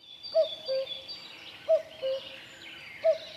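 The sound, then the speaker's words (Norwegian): A common cuckoo calls its two-note cu-coo three times in a steady rhythm, clear, over a soft hiss of background ambience with no one speaking. “Gjøken er avhengig av å legge eggene sine i andre fugler sine reir, først og fremst heipiplerka.”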